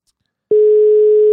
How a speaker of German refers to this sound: Ah, es klingelt.